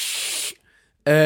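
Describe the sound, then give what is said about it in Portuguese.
A voice imitates hot tea sizzling on a foot with a loud, steady hiss lasting about half a second, followed by a short silence and then the start of a voiced sound. “isto é o som de chá a ferver no pé.”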